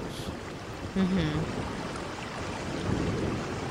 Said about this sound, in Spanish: Qué bello se escucha esa lluvia y truenos. Sí, hombre. Lo voy a dar, mira, es que es porrazo de agua.